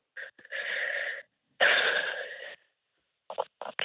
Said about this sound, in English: Okay. Take a big deep breath and then drop your shoulders all the way down.